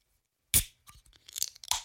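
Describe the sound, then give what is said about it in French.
A beer can from a quality brewery cracks open for a tasting with a single sharp snap from silence, followed by a sputtering, crackling fizz in irregular bursts as it foams. No voices. “Comme vous l'entendez, c'est une canette.”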